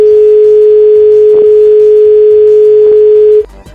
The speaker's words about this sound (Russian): Мы сломали весь эфир. Все радио. что не может быть на мобильный такой гудок. Такого гудка вообще не может быть.